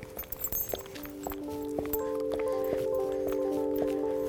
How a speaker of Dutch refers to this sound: Nou, we lopen nu van huis naar de bus. Ik hoef Bajaar niets te zeggen. Want als wij deze kant op lopen, dan lopen we naar de bus.